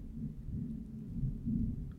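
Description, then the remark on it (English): A low, continuous rumble of thunder from a passing thunderstorm rolls steadily for the whole moment, deep and muffled, swelling slightly toward the end with no voices present. “Do you hear the thunder in the background? Thunderstorm rolling through.”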